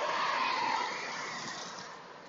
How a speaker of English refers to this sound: Um, I see a car, I see light. So there's a car, so I'll pause.